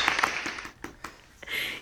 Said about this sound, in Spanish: Aplausos, por favor.